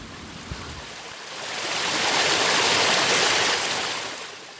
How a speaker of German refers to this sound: Beim Abstieg lege ich noch eine Pause ein am Bach und genieße die Ruhe und das sanfte Plätschern. Und jetzt ist deine Zeit. Entspanne dich und genieße das Rauschen des Bächleins.